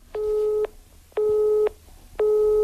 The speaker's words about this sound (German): Besetzt.